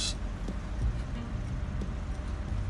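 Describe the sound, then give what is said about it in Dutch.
A car engine's cooling fan runs loudly and steadily because the engine is getting too warm, a dense whooshing roar with a low rumble beneath and a few faint clicks, no voices. “En ik, ik hoor nu ook weer die uh, ventilator knallen. Dat het te warm wordt.”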